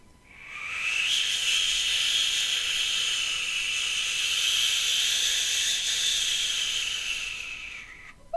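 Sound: snowstorm wind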